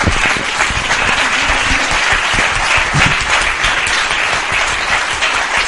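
Steady, dense applause from an audience for two hosts, many hands clapping at once in a loud continuous wash that holds at an even level for several seconds without fading.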